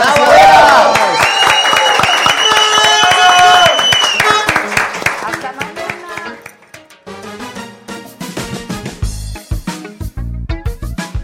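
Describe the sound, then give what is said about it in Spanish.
Audience applause with a crowd cheering, loud and dense at first, then thinning into scattered claps that fade out over several seconds. “Aplausos, gracias.”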